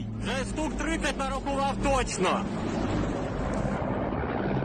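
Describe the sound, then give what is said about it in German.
A deep, steady engine and rotor rumble with gusty wind-like noise as a swarm of more than 30 black Russian helicopters approaches Hostomel airport, with a person's voice heard briefly over the first half before the roar continues alone. “Ein Schwarm von schwarzen Helikoptern im Anflug auf Hostomel.”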